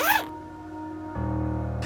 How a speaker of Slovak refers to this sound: Potom už mladú ženu položia do tmavého vreca. Zips konečne zahalí jej znetvorené, polonahé telo.